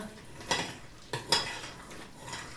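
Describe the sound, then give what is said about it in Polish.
A spoon stirs through a thick cooking sugar mixture in a pot, moving smoothly without any crunch of sugar, with a few soft, smooth sweeping strokes against the metal, fairly quiet, no one talking. “Nie słyszymy chrzęszczenia cukru, łyżeczka w garnku chodzi gładko więc możemy spokojnie masę odstawić do ostudzenia”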